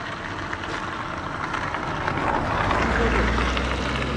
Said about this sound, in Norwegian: Du som jeg må hilse med en annen kar, som vi ser bare slipper en bil forbi først.